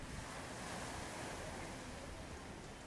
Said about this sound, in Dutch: Hopelijk hoor je nog heel eventjes het lekkere geluid van de zee. Ik zal heel even stil zijn.